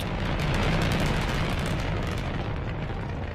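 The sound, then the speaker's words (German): A continuous, thunderous roar of a Saturn V rocket launch, with about 34,000 kilonewtons of thrust, fills the whole clip, dense and rumbling with deep low-end crackle at full, steady loudness with no voices. “Der Start einer Saturn V war nach der Explosion einer Atombombe das am weitesten zu hörende menschengemachte Geräusch überhaupt.”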